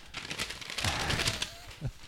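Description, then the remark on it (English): Paper crumpling and crinkling for about two seconds, a dense, steady run of crisp crackles with a few louder pops, and no voices. “That's the wrap up paper sound.”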